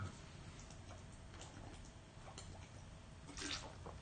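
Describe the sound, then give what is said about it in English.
Someone quietly drinks water, with faint sips and soft wet swallowing sounds scattered over a few seconds and a slightly louder gulp near the end. No one speaks. “I'm gonna drink some water.”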